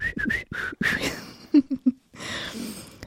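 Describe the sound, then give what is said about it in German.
Someone whistles several short, wavering notes with the mouth. A few low, brief hummed tones and a soft breathy rush follow, with no talking. “Genau, zum Essen und zum Reden, zum Lachen, zum Singen, zum Pfeifen hast du gesagt.”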